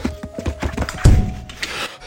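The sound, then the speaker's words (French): A door being forced open by the hero, who wants to smash everything: a rapid run of dull knocks and thuds, then one heavy, booming bang midway that rattles and fades, followed by a few softer bumps. “Il a ouvert la porte Merde, faites pas un bruit Ça va c'est, il veut tout défoncer”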